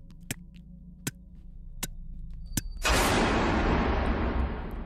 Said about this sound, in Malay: Ya sedang saya memandu bunyi seperti bayangkan dalam keranda ni yang saya bawa ada mayat manusia kan dalam keranda ni bunyi macam ada orang ketuk